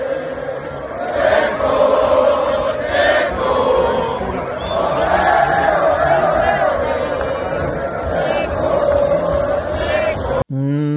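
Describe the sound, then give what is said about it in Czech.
A crowd in the sold-out grandstands at the Mexican Grand Prix roars and cheers in a sustained, loud wave of voices at Mexican driver Perez's podium. Chants and shouts swell over a dense wall of noise before it cuts off abruptly near the end. “Ale pojďme nejprve k tomu výkonu a k té úžasné atmosféře bedna mexického závodníka před vyprodanými tribunami mexické velké ceny.”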